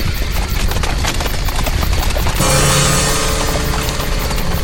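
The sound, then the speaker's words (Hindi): A dense, loud clatter of many horses' hooves clip-clopping together, a busy overlapping rhythm that shifts partway through into a harsher, more sustained rushing texture. No one speaks. “ये ये ये इतने सारे घोड़े ये कैसी आवाजें हैं भाई साहब कुछ नहीं कुछ नहीं भाभी जी वो वो पास के ही गांव के घोड़े हैं”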